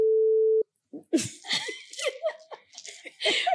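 A loud, steady censor beep covering a spoken last name holds one mid-low pitch for about half a second, then cuts off sharply; after a brief pause, people start talking and laughing.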